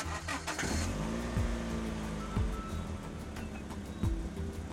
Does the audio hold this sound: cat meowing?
no